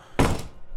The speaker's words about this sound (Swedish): Du ser hur dörren plötsligt slår igen framför din ansikte